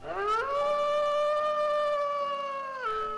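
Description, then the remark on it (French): A wolf howl swells upward, holds a long steady mournful note for a few seconds, then drops off at the end; loud, with no talking. “Les animaux, petits et grands, vivaient au rythme des étoiles et de la lune sous le regard protecteur des loups. Lorsque ceux-ci se mettaient à chanter, tous se réunissaient pour écouter leurs histoires.”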